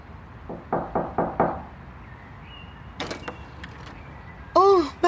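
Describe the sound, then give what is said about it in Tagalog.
Four or five quick, evenly spaced knocks on the door of a home, fairly loud, followed by a few softer clicks and a brief voice at the end. “hinihintay kong makauwi ang anak ko nang kumatok si Magno sa pintuan namin”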